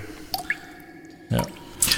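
Water drips in a stalactite cave, a handful of drops falling at irregular intervals. Each plink is clear and leaves a faint ringing, echoing tail. No voices.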